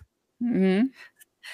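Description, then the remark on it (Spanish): A single sneeze: a rising voiced intake that builds into a breathy, hissing burst, followed by a short noisy exhale. “¡Salud!”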